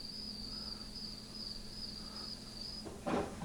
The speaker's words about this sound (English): Some uh, crickets.